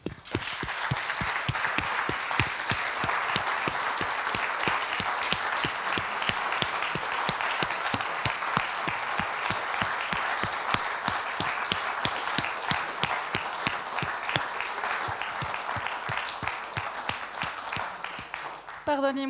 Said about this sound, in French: Merci, on va vous applaudir encore une fois.